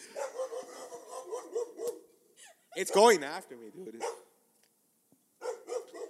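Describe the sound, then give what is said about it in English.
A dog barks loudly in a short burst of several sharp, yelping barks, with a man talking before and after it. “I'm sorry about the dog.”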